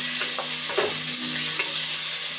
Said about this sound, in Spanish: Una vez más estamos aquí en mi cocina. Espero que se escuche un poco mejor que la vez anterior. Si solamente escuchan el sonido que les da el platillo que estoy haciendo, pues es porque así tiene que ser.